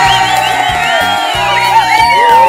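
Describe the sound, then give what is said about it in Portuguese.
A loud crowd cheers and whoops continuously over applause on Rádio Joia, with shrill rising voices overlapping throughout and a steady low thumping underneath for the whole couple of seconds. “É você que está nos ouvindo através do nosso site, você que não manda mensagem, não manda abraço, não manda alô, não manda nada, mas está aqui ligado na Rádio Joia, merece também aquele aplauso, minha pedinha!”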